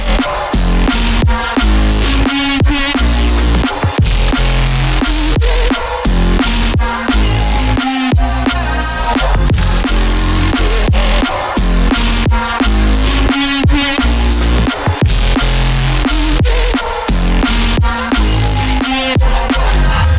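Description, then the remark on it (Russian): A loud, dense ethno drum and bass remix with a thumping bass line, fast broken drum patterns and layered tonal melodies, playing continuously with brief drops in the beat. “но на этот раз в ремиксе. Грандиозный этно драм н бейс”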